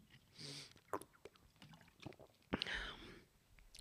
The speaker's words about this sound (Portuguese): Pá, estou a beber demasiada água.